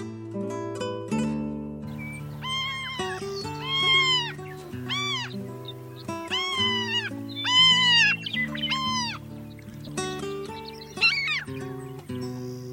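A Franklin's gull, also called the prairie gull, calls repeatedly in a series of loud, nasal mewing cries, some rising and falling, over a steady low tonal hum in the background.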